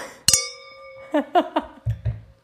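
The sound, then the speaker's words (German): A bright clink of wine glasses touching in a toast, the tone ringing clearly for almost a second, followed by a few softer taps and low thumps as the glasses are handled. “Warte, ähm, warte, Prost, Prost, wir schlossen an.”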